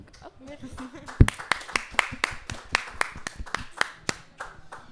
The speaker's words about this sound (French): En, tout cas, on peut, on peut, les, on peut les applaudir et les, saluer pour le travail qu'ils ont fait.